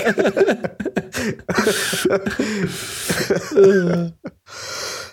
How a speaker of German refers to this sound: Oh Gott, ich darf echt viele Huster rausschneiden.